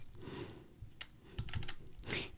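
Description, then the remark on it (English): Keyboard typing on a braille keyboard, typing a test into a test file: a handful of crisp, irregular key presses with soft clicks and thuds, heard alone without any talking. “So So I was just typing this as a test.”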